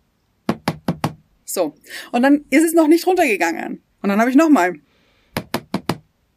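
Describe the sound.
Two quick bursts of four sharp knocks on a hard surface, tapped in a snappy rhythm, with someone talking in between the two sets.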